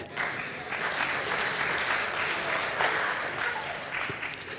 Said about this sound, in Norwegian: Så kjære bonde, kan du komme fram og bare sitte der? Jeg må gjerne gi bonden en applaus.